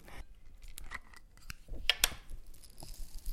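A dry, scattered rattle of hundreds of sunflower seeds, with many small clicks and ticks tumbling, irregular and fairly quiet, with no voices.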